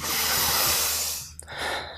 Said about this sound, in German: Und die Nase, die steht für mich dann für den Atem. Ähm, rein oder raus, das kennen Sie. das ist ziemlich einfach beim Atmen. Und das hat halt den Effekt, wenn ich einatme und mich aufs Einatmen fokussiere, also